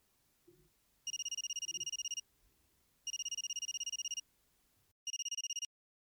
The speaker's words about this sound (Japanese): 鳴りやまない電話で根気をなくしつつあったさなか再びそれは鳴った